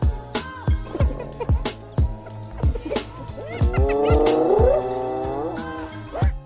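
A hyena lets out loud, wavering, rising screams that swell midway, set against a steady, rhythmic thumping beat that runs from start to finish.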